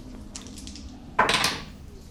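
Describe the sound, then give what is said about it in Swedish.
Two dice, rolled for a tier 1 plus a Devil's Bargain in a tabletop game, rattle softly with a few light clicks, then clatter onto a hard surface in one loud burst of tumbling knocks that quickly fades, landing on a four and a six. No one speaks. “Så då är det två tärningar då, för de har tier 1 plus en Devil's Bargain.”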